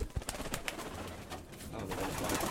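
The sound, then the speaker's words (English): Several pigeon hens coo in low, burbling tones inside a small handmade wood-and-wire pigeon loft in a garden, accompanied by scattered clicks, rustles and wing shuffles, with no one speaking. “We're looking at my pigeon loft, which is quite a small loft by pigeon fancier standards, although you might not agree.”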